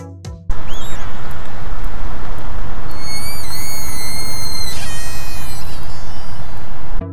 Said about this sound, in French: Et oui, ce sont bien des sifflements d'orques. C'est beaucoup, beaucoup trop mignon leur bruit.